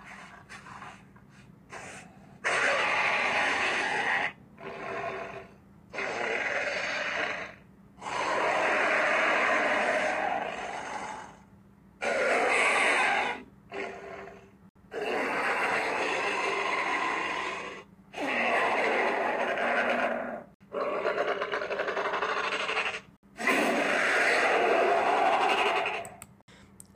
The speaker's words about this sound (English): In Jurassic World Evolution 1 and 2, it shares the same voice, but there's a mix of bear, frog, pig, and just a little bit of bird.